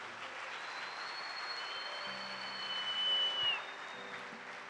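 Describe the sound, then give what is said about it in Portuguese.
An audience claps steadily in a dense, sustained wave of applause, with sustained organ or keyboard tones ringing beneath it and swelling slightly toward the end. “Dá outra salva de palmas a Ele.”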